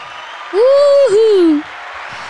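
Steady clapping hiss runs under a single loud, drawn-out vocal cheer that rises, dips and glides back down for about a second before the applause continues alone.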